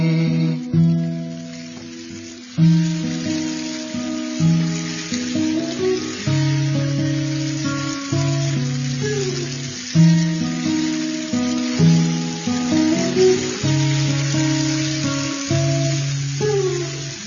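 A steady hiss of falling rain runs underneath a slow, gentle piano melody, whose sustained chords return in a regular, unhurried pattern. No one speaks.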